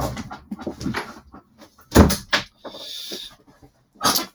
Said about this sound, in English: so the, a, a, dog has just walked into the room. Come in, come here, come here, come here. A wet dog and a stinky dog, actually.